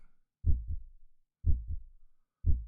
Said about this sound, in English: To adjust the rhythm of both, start counting five heartbeats.